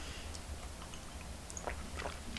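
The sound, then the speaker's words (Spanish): A quiet sip of hot coffee, the first sip of the day, on a humid day in Havana, Cuba, with rain showers likely: a couple of short, soft slurping mouth sounds over a low background hum, with no talking. “Así que me voy a dar rápidamente este primer sorbito de un día húmedo y con muchas probabilidades de chubasco.”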